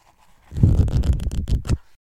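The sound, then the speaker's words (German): Pages of a freshly printed copy of the book Connect by Thea Mengeler rustle for just over a second, a dense papery crackle with several crisp flicks toward the end, fairly loud and with no voices. “Ich lasse mal kurz rascheln.”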